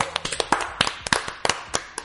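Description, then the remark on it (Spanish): A few people clap in quick, uneven bursts for about two seconds to welcome listeners to the show Locos por las Motos, the sharp claps overlapping into brief applause with no talking. “Bienvenidos a Locos por las Motos, muchachos, aplausos. ¡Bravo!”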